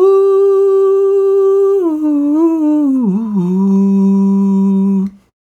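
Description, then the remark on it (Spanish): A single voice holds a sustained sung tone, gliding smoothly downward between pitches with a wobble near the end before settling on a low note and stopping abruptly, steady in loudness. The person holds their voice while changing notes, demonstrating notes sliding into one another. “Y si sostengo la voz y voy cambiando las notas, suena así.”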